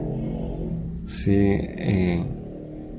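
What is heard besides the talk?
motorcycle engine revving outside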